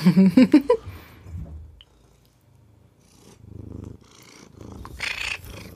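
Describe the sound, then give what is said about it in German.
A small white Sphynx cat purrs right up against the microphone, a steady low rumble pulsing with each breath, preceded by a brief louder burst at the start. “ja, wie man hört, ist die Katze äußerst zufrieden.”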